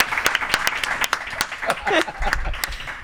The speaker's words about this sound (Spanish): Un aplauso, un aplauso.